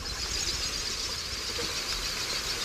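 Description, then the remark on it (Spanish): A steady, airy hiss from blue ducks' wings as they take off, a continuous breathy whoosh without distinct beats, fairly soft and with no voices. “unos patos azules que cuando despegan se oirá un siseo”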